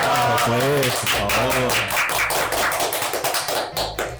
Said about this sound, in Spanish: Así que aplausos para ellos.